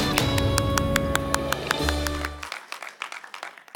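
Rhythmic claps sound over loud sustained music, then the music cuts out and scattered audience applause continues more quietly for the last second or so, welcoming a guest preacher from Germany.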